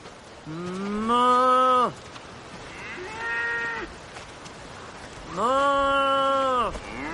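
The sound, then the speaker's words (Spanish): A person imitates a cow, giving three drawn-out moos: a long one, a shorter softer one, then another long one, over a steady hiss of background noise. “… imita el sonido de las vacas.”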